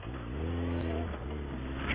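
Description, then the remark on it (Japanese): Steady, loud road traffic from a busy highway, the Shin 4-go (New Route 4) road, including many trucks: a continuous rumble of car engines with a droning hum that swells slightly as vehicles pass. “車切れないですね。”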